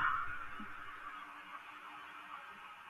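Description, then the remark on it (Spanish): A soft, sustained brassy wail from trumpets or a saxophone opens a song, holding steady for a few seconds with a slightly raspy, honking edge. It plays alone, with no voices. “Empieza justamente con, con las trompetas o el saxofón”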